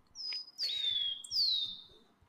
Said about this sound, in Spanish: Por ejemplo, escuchar los pajaritos.